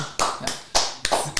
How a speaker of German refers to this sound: Und Applaus für dich. Applaus für dich.